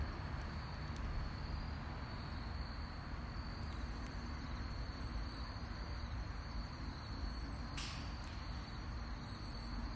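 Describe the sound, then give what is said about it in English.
A conehead katydid's continuous, high-pitched buzzing call starts a few seconds in and drones on steadily without a break, heard over a low, constant background hiss. “There's a lot of different types of cone heads. I'm going to play just a few.”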